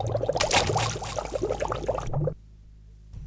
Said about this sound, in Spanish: Y un buen día el globo de oro se le escapó de las manos y fue a dar al estanque y se hundió en lo profundo del agua.